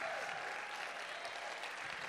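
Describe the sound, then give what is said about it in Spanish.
An audience claps strongly for Jesus, a dense, continuous wash of many hands applauding at a fairly loud, even level throughout. “Oh, vamos a darle ese aplauso fuerte a Jesús.”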